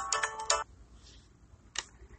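A cell phone ringtone plays a quick run of bright electronic notes, then one more short tone after a pause. It sounds faint and in the background, with no one talking.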